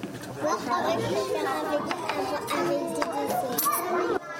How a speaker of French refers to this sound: Ici, dans cette cantine scolaire de Côte-Bec-les-Elbeuf, la question fromage ou dessert ne se pose plus.